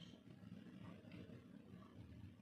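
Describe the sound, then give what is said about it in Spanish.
Faint, steady rumble of traffic outside the room, with cars and motorbikes passing, low engine noise blending into a continuous background hum with no voices. “Date cuenta de los sonidos que se oyen fuera de la habitación, pitadas, coches, motos.”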